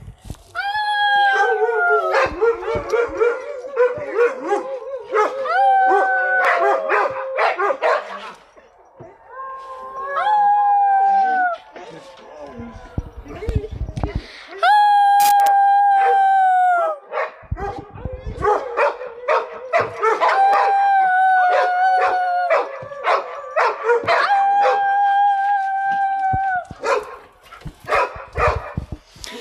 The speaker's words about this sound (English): 8 p.m. in Colorado. Okay. We've got some howling dogs who like to howl with the neighbors.